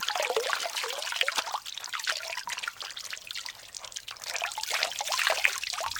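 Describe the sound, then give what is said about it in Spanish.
A steady trickle of water runs from a tap, a continuous splashing dribble, moderately loud, with no voices, flowing unbroken for the full six seconds. “Y de pronto la llave se cerró.”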